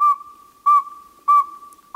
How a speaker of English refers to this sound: Named for what, to some, sounds like a saw being sharpened on a stone, northern saw-whet owls are common in forests across southern Canada and the northern U.S.